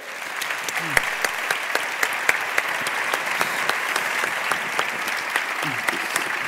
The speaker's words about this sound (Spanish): os pido un fuertísimo aplauso, por favor.